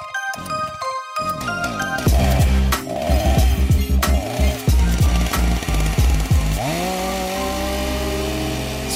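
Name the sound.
chainsaw running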